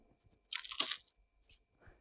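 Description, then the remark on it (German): A Hanuta crunchy wafer snack is bitten with a loud, crisp snap, followed by a few quieter crackling chews, with no talking. “So, jetzt wird es wahrscheinlich einmal gleich ordentlich knuspern.”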